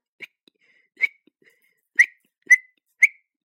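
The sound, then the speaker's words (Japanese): Five short, sharp lip whistles at a high pitch, spaced irregularly, the first two softer and the last three louder and more piercing, with no talking; an old man whistles to call his tame goose. “と唇を吹きました。こんな命がけの場合でも、飼い主の呼び声を聞き分けたと見えて、ガンはこっちに方向を変えました。”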